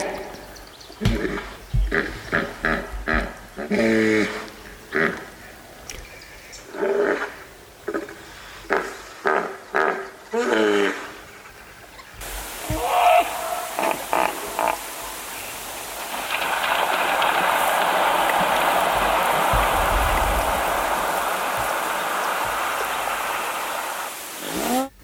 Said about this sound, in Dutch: Ja, dat is nijlpaard. Ja. Knorretje, nijlpaard. Ja. ja, dat is ook, ook een geluid dat draagt ver. Eh, ook natuurlijk omdat het op het water eh, is.